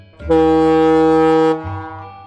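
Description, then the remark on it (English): A single loud, sustained blast of a ferry boat horn, deep and brassy with rich harmonics, lasting over a second before cutting off into a low rumbling tail. “But a ferry is also the name of the boat that carries people, and sometimes cars, across a small body of water.”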